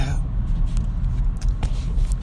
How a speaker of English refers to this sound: Bumper to bumper traffic for some odd reason. Probably somebody wrecked, as always, on I 10 in Houston.